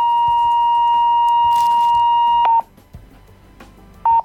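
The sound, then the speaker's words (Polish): A kitchen scale's over-target warning beep, sounding because the candies on it exceed the target weight: a loud, steady electronic tone held for about two and a half seconds, then a short repeat of the same beep after a pause, with no talking. “I ten sygnał oznacza, że jest y, więcej niż powinno być wadze docelowej.”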